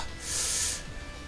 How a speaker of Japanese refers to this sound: 咳払いをしてしまいました、はい、ツイキャスはミュートしたけどこれそのまま出てしまうというですね失敗しましたね